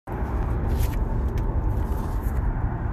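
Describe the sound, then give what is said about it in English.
Steady road noise from a moving car while driving home: a continuous, loud low rumble with a faint airy hiss above it, unbroken for the whole stretch and with no voices. “I forgot a way to get rid of some of the background noise and still do the CarCast, but I think the authenticity has struck a note with about 10 of you so far.”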